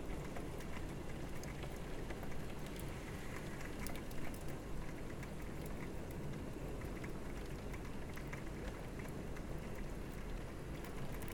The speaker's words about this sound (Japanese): 今日っていうこんなにめっちゃ雨降って雷ゴロゴロ言ってるっていう天気でさえこう愛おしく思えたらいいなと思います